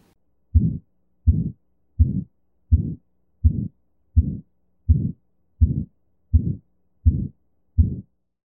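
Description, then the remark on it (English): An aortic stenosis mid-systolic ejection heart murmur heard through a stethoscope, best heard in the aortic area: eleven evenly spaced, low-pitched whooshing beats at a steady rhythm, each loud and rough, with near silence between them and no voices. “In case of aortic stenosis, the murmur is loud, low-pitched mid-systolic ejection murmur, best heard in the aortic area and radiating to the neck.”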